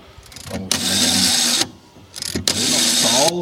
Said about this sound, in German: Es gibt auch noch ein etwas moderneres Telefon hier. Es funktioniert mit einer Wählscheibe, die macht ja einen ganz charakteristischen Ton.